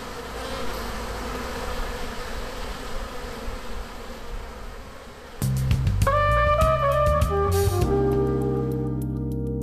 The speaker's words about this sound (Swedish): nu hörde vi ju här hur de här bina surra och du berättade engagerat åt Sonja och så vidare uh, där vid dina kupor.